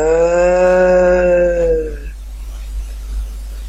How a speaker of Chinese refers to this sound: 那老牛看了看这瓢水，没喝，却向着远方。仰天长叫了一声，哞，